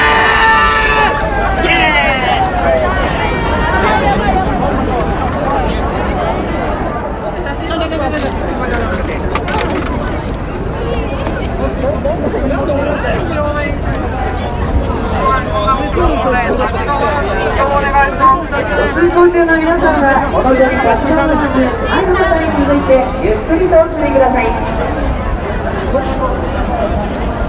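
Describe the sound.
Dense crowd chatter fills a busy street in Shibuya. Many overlapping voices blend into a steady hubbub, with passing footsteps and a traffic murmur underneath, continuous all around.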